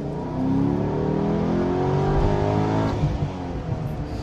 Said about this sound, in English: I'm not sure that you really need all of that sound when you've got those burbling four exhausts exiting underneath the rear bumper that whenever you want to, you can just give it a quick pop and come up with something that sounds like this.